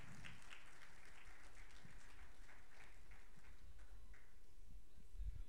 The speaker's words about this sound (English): And so I think we should just give her a special round of applause for that.